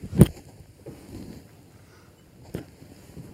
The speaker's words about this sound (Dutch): Ja slokje water.